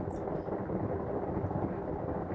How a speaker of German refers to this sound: Alter, jetzt ja. geht's halt wirklich ab da draußen. Das klingt fast ein bisschen nach Hagel.